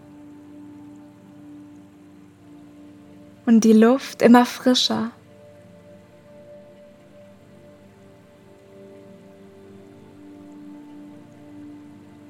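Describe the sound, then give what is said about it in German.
A steady, soft wash of splashing, rain-like water runs evenly through the whole recording, with a brief spoken phrase rising over it near the start. “Das Plätschern wird immer lauter und lauter”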